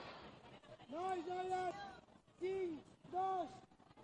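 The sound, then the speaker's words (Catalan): A coach shouts three times, long drawn-out calls with a pause between them, while following a three-against-three tamborí match, over faint background noise. No clear words come through. “Tenim l'entrenador que abans hem estat escoltant, és el, el que està fent aquests crits, realment, eh, que està una miqueta seguint com està anant el partit.”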